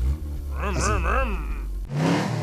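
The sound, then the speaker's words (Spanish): A voice imitates a car engine revving in a street drag race, its pitch rising and falling in wavering swells, then breaks into a harsh, hissing burst like tires screeching, loud. “No, de Arrancones este, de rechinar el carro como este.”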